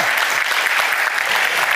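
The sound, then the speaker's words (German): Steady audience applause at the Bodensee Business Forum, a dense wash of many hands clapping at an even, sustained loudness throughout with no voices standing out. “Erstmal einen großen Applaus für dich.”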